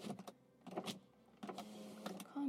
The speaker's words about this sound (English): crack the window. Not that much